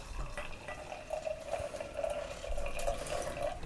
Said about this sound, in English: Beer pours.